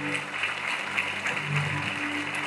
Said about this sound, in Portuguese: Se é para aplaudir, aplauda com vontade, irmão, pelo amor de Deus.